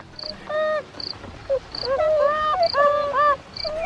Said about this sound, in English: Very few animals engineer the environment around them to make it to their liking. Humans do, and so do the animals we're listening to right now beavers.